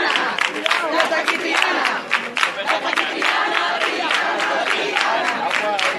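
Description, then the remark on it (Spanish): A large crowd sings classic chants together as the silver carreta enters Calle Mujer, a loud, continuous, dense wash of many voices, with a steady swell that rises and falls across the six seconds. “Ya está aquí- y empiezan ya los cánticos clásicos.”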